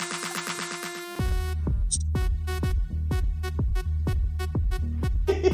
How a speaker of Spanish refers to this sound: Esta canción es la canción de los pejigueras, es la bocina pejiguera. Vaya temazo, ¿no?